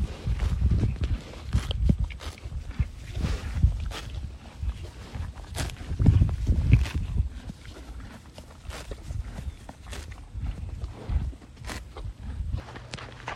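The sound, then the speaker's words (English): A horse named Falco grazing peacefully on vitamin-rich grass, with irregular crunchy rips and tears of grass between low, steady chewing sounds as he pauses every other bite to chew, repeating throughout at a moderate level with no voices. “Falco, the horse I'm riding today, is peacefully and carefully chomping away on the vitamin rich grass.”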